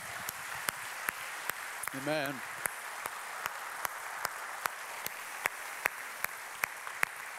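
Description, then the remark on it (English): An audience applauds General Boykin steadily throughout, a dense wash of clapping with sharp, evenly spaced claps punctuating it; one voice briefly calls out partway through. “Give it up, guys.”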